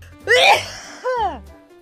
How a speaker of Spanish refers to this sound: Entonces me empezó a picar la nariz. Sentí que iba a estornudar, así que soplé y soplé. Y lancé un tremendo estornudo.